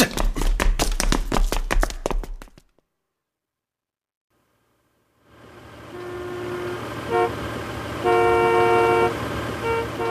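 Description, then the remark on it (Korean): Several car horns honk repeatedly over a steady rumble of idling traffic in a jam on a road just reopened after a closure, with long and short blasts overlapping. A burst of rapid tapping comes first, then a brief silence before the street noise swells. “아이, 길 한번 더럽게 막히네.”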